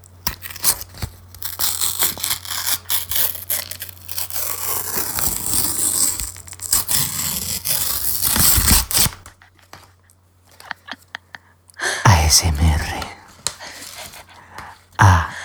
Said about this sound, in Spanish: Mira que bien abro los sobres, mira.